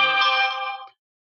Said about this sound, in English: and I do apologize for my phone going off.